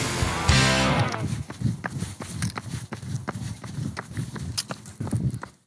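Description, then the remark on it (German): Heavy, thudding footsteps of a person out at a late hour in Bethesda pound along at a steady pace of roughly two per second, loud, following a brief rush of noise at the start; no one speaks. “Zugegeben, es hört sich eher an wie ein Elefant, nicht wie eine Gazelle. Doch ich kann versichern, es ist weder das eine noch das andere. Es ist ein menschliches Wesen.”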